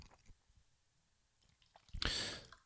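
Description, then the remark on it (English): Beer is poured after a few faint clicks and handling noises, ending in a short, loud, fizzy gush of liquid close to the microphone. “Let me just pour some, pour nice brewski.”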